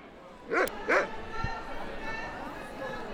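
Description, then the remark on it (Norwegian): A dog gives two sharp, loud barks in quick succession at a dog show, against a steady murmur of crowd chatter that continues after the barking stops. “Og hva hund er det du har? Shetland Sheepdog.”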